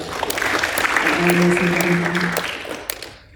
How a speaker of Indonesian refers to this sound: Kalau di sini soalnya udah enak loh musiknya luar biasa keren tepuk dong buat musik.